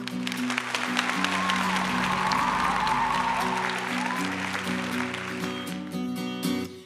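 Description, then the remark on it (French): Loud, continuous applause from a large crowd fills the whole stretch, dense and steady, with a sustained tonal layer, like voices or music, running underneath. “J'ai qu'une envie, c'est les applaudir.”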